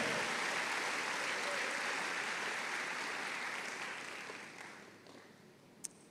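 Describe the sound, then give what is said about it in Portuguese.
A church audience claps steadily to praise God's name in a dense, sustained wash of applause that holds for several seconds, then gradually thins and fades, ending with a single sharp clap. “Se você crê nisso, celebra o nome dele, glorifica glorifica o nome dEle, aplaude o nome dEle.”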